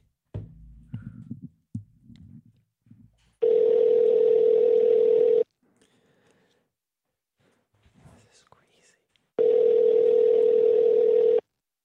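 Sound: telephone ringback tone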